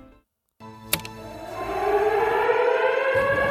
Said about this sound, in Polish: Puszczana była syrena, wszyscy musieli natychmiast zebrać się razem